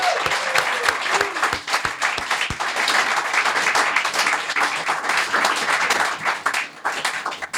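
A crowd bursts into sustained applause, dense clapping filling the room at a steady loudness for several seconds, with a few sharper individual claps standing out near the start.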